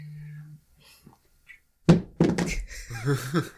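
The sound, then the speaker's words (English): Several sharp knocks on a hard surface, a loud crack followed by a quick cluster of thuds and clatter, imitating three cars on a road crashing into each other, after a faint hum and soft taps. “That's what the cars sounded like hitting each other.”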